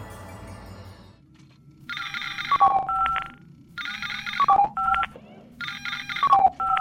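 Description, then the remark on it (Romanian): An electronic incoming-call ringtone for an emergency aboard the spaceship Zorar, a message for all defenders of the Xarazon galaxy, sounding three times in a steady pattern: a bright buzzing tone, then quick falling beeps, over a low rumbling hum. No one speaks. “Am primit un apel de urgență.”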